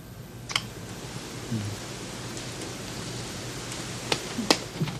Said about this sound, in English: Oh, it's still raining.